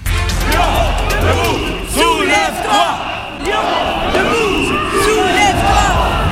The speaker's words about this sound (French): Oui oui, des slogans très originaux, des chars syndicaux qui jouent plus fort que jamais les super tubes